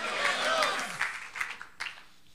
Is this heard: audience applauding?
yes